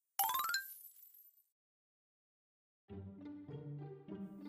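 A bright, brief jingle of coins from a wallet, handed over as payment, rings out sharply at the start and fades quickly, followed by a pause, then steady background music comes in.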